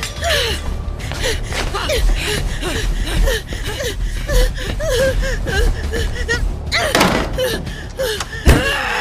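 A bedroom door slams shut with a loud bang near the end, followed by a sharp thud, while strained vocal sounds like gasps and whimpers continue throughout.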